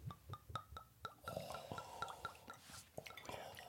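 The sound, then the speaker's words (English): Whiskey glugs and drips into a glass in a quick series of wet, gurgling splashes as shots are poured, with faint clinks and some background murmuring. “Oh, oh, we're not having any dribbles. Okay, in the glass. Every shot yeah. counts.”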